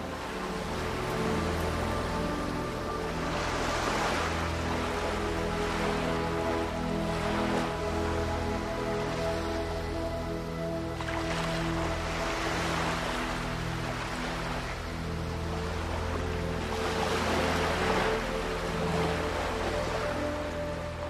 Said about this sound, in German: Auf der anderen Seite des Schiffes hörst du, dass etwas Wasser aufspritzt. Und du siehst eine Gruppe von Delfinen, die entschieden haben, dich auf deiner Fahrt zu begleiten. Sie tauchen unter und sie tauchen wieder auf.